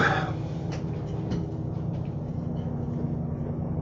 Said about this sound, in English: The airplane crashed into your house. It's so loud. What is? Your airplane? Oh, that's a helicopter. Yeah, it felt like it was entering your house. It was so amplified.